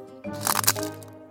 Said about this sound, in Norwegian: Hva var det? Du, det var lyden av lesekoden som knakk.